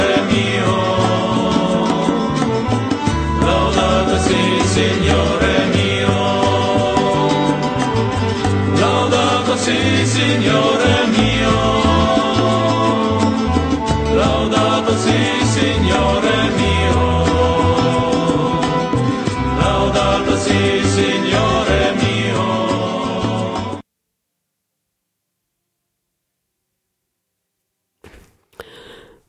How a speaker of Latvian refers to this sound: Mēs dzirdējām, kā dzied svētā Franciska brāļi, un svētā Asīzes Franciska vārds ir dots ne tikai baznīcām.